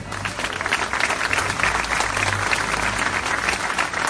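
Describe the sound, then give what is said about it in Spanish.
Sustained applause from an audience for the performers of a show, including the Asociación Ocho Sílabas, a dense steady patter of many hands clapping at once, fairly loud and continuous throughout with no talking over it. “a los amigos que han venido también a ofrecernos este espectáculo y, a todos ustedes porque son, son los aplausos los que ellos reciben con, satisfacción y alegría.”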